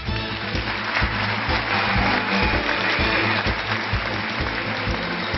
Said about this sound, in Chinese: 继续让我们掌声有请乐视影业 CEO 张昭，有请。